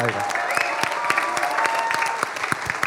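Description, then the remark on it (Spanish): A church audience claps steadily in rejoicing, dense overlapping applause at a lively, sustained level with a faint murmur of voices underneath. “Alégrense, gócense, te la puerta, tienen que gozarse, aplaudir.”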